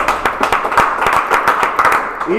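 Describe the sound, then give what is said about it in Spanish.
An audience at the Hotel Novo Express in Caracas breaks into applause for Pericontenido, producer of Techo 3. Many hands clap in a dense, steady patter that stays fairly loud throughout, with a few sharper individual claps standing out. “Aplauso para Pericontenido también.”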